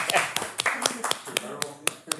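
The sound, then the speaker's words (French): In a studio, a handful of people clap their hands in sharp, irregular bursts, about a dozen loud claps over two seconds, while voices murmur and talk underneath. “On s'applaudit”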